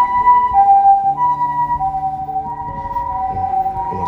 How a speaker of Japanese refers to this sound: 今さすがに皆さん意識に上がってると思うんですけど救急車ね病院の前なので。